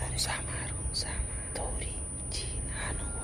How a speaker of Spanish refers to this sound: Había mucho ruido de susurros, de muchas personas cerca de mí solo veía el techo de la iglesia.